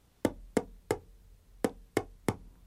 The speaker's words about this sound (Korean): 이렇게 책상 치는 소리만 나오면서